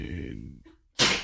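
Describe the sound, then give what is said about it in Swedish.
A single sharp sneeze bursts out after a stretch of low voiced sound and a brief pause, loud and breathy with a hissing spread of noise. “Prosit.”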